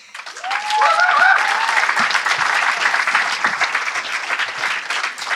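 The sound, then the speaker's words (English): An audience breaks into steady applause for the next speakers, many hands clapping in a dense, sustained wash, with a couple of rising whistles cutting through early on before the clapping tapers slightly. “All right, give these guys a round of applause.”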